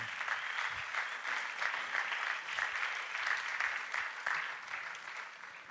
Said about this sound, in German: komm doch zu mir auf die Bühne, Lassen sie mit einem Applaus willkommen heißen.